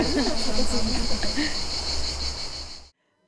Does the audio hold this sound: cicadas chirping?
yes